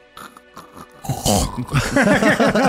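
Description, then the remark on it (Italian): A voice imitates a coffee maker brewing coffee during a livestream, with rapid gurgling, snorting pulses that start quietly and grow louder and more bubbly, the pitch wobbling up and down in quick repeated bursts. “Quale- no, scusa, mi fai il suono del caffè?”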